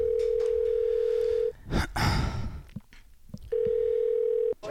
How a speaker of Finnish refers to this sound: Kokeillaan, painapas sieltä, sieltä soita. Pistetään puhelua pyörimään.